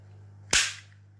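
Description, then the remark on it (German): A single sharp crack from a toy pistol going off, with a short bright ring that fades quickly, over a steady low hum. “Ähm, ne, meine Spielzeugpistole.”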